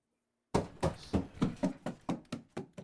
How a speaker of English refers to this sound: Hey, don't be stomping up the stairs like that, you hooligan. You're making noise and will wake everyone up. Keep it down.